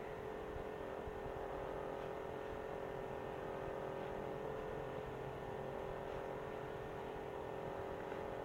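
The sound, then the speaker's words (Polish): A steady, continuous mechanical whir and hum from the mechanism of an amateur cassette dictaphone recording a tape, holding an even low drone with a faint hiss throughout and no voices. “Jest szum mechanizmu, także teraz włączyłem, wychodzę na balkon.”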